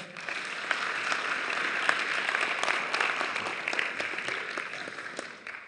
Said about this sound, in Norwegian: Fantastisk! Vi må gi teamet en skikkelig klapp.